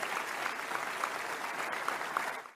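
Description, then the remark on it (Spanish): Steady applause from many people in a national assembly, a dense, even patter of clapping with no pauses that fades out at the very end. “Y lo aplauden.”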